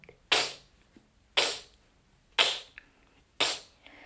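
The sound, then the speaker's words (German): A beatboxer produces four sharp inward K snares, sucking air in through the cheeks into the mouth, evenly spaced about one second apart, each a bright hissy snap that fades quickly, performed alone. “Ja, also das ist halt die Inward Case, ne? Also Inward heißt, heißt, halt, heißt halt rein und man atmet halt ein.”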